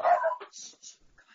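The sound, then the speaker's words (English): A dog gives one sharp bark, followed by a few quick, higher-pitched yips and whines trailing off over about a second. No one speaks. “Oh, you have to excuse my dog there.”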